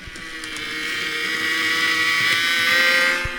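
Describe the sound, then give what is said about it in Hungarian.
A model Tatra T1 tram, a Czech-built model, starts off along its layout track toward the church stop, its small electric motor giving a steady, buzzing whine that grows gradually louder over a few seconds, with faint rumbling beneath. “De közben nem tudom, behallatszik-e, hogy elindult egy villamosunk is a pályán,”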